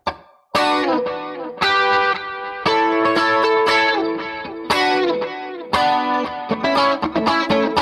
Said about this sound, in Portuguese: Essa guitarra que você tá falando é, é aquela guitarrinha que faz o.